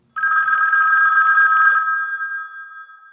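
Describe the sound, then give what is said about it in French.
An old, dusty landline telephone that hardly ever works rings once, a loud, sustained electronic trill that starts abruptly and fades slightly toward the end, heard alone with no talking. “On n'entend que ça, la sonnerie du téléphone, celle de son fixe, qui ne fonctionne presque jamais, faut voir l'état de l'appareil et la poussière dessus, autour.”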